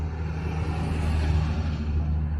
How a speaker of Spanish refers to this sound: igual que el audio de este episodio, porque pasan muchos carros al lado. Porque yo tenía ni puta idea que pasaban tantos camiones.